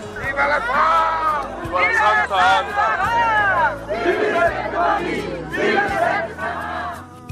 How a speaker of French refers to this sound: Un rassemblement de milliers de personnes hyper compact comme mouvement de foule avec des, chevaux qui rentrent sur le, sur le sable.